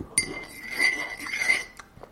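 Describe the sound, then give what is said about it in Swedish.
A spoon clinks against a glass while stirring sugar into a strong breakfast tea: a sharp chime that rings on with a bright, sustained tone, softer scraping taps beneath, and a second clink near the end. “Nu har sockret fördelat ut sig här i vattnet.”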